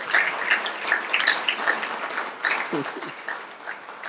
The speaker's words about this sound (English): Put your hands together for her, please.